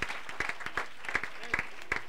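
A church audience claps their hands together in a dense, steady patter of overlapping claps, with sharper individual claps standing out every half second or so, applauding the church's leadership.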